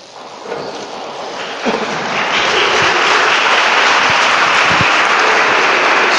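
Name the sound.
crowd applause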